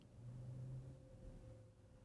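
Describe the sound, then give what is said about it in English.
Traffic going by outside in a busy place, picked up by a USB condenser microphone: a vehicle rumbles past, a low droning engine swell that rises and fades over two seconds, with steady background hum and no talking. “So you should have been able to hear that traffic going by.”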